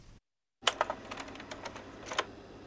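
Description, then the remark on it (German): A slide projector clacks as the next slide is pushed in: a burst of sharp mechanical clicks and rattles after a brief silence, ending in a louder double clack, clear with no voices. “Also es gibt einzelne Kapitel sozusagen, Kommentare, äh, die oft von für heute junge Menschen mit einem sehr eigentümlichen Geräusch beginnen, nämlich dem Klackern eines Dia-Projektors beim Einschieben des nächsten Dias.”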